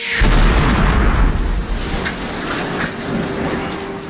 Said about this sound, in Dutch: En we zitten ook te spelen met filmclichés, zoals die, die scène met eh, die, die granaten die ontploffen. Dat is eigenlijk gewoon Band of Brothers of Saving Private Ryan.